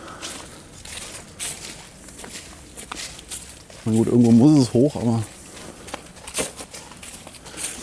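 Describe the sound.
Steady footsteps squelch and crunch along a muddy, leaf-strewn path through a settlement, continuing throughout, with a person speaking briefly partway through.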